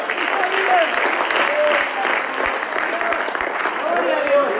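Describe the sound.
An audience applauds loudly and steadily for the Lord, dense clapping lasting several seconds, with scattered voices and cheers rising through it.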